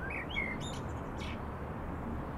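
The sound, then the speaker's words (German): Blackbirds sitting under a canopy roof behind warehouses chirp at dawn as the sky grows lighter: a few short whistled notes and quick chirps in the first second or so, set against a steady hiss of background noise with no voices. “Hinter den Lagerhäusern wird der Himmel heller. Im Vordach sitzen die Amseln und spüren's.”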